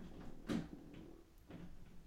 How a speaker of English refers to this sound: He's trying to open the door. it's like a cat with hands.